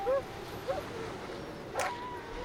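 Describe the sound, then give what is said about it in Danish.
Sled dogs pulling a sled across a frozen fjord yip and bark in short, scattered bursts over a steady breathy rush of panting and movement, with no one talking. “Hundene halser over den frosne fjord med retning mod varme, mad og vand i form af en lille hytte direkte foran dem.”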